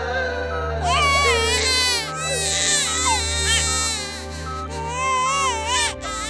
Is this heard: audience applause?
no